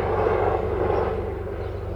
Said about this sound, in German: Über uns kreist gerade ein Hubschrauber. Ich weiß noch nicht, ob man das nachher hören können wird, aber wir warten mal, bis der eben weggeflogen ist.